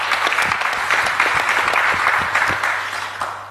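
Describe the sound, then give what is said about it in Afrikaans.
A crowd applauds Dr. Brendan Venter steadily, with dense, overlapping hand claps at a fairly loud level, holding for a few seconds before easing off slightly at the end. “So gee vir Dr. Brendan Venter asseblief 'n lekker hande klap.”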